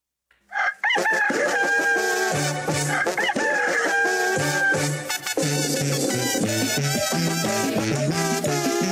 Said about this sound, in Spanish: El gallo de don Porfirio muy temprano nos cantó, pero se quedó colgado de un alambre, se cayó.